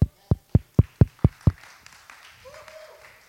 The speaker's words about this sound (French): Merci à chacun d'entre vous pour votre effort. Vous pouvez vous applaudir.